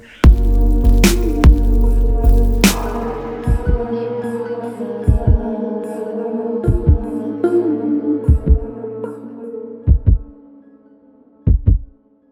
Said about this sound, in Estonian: võimalikult creepy on nüüd lohistada seda lauda ja siis veel tool ka nüüd hästi aeglaselt